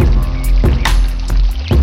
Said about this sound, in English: What do you hear? I hear the water.